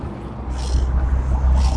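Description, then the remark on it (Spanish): Steady wind buffets the microphone with a deep, blustery rumble and occasional hissing gusts while riding a bicycle to work. No one speaks. “Cómo se siente o cómo se escucha mi recorrido sonidos ambientales, bicicleta, el aire”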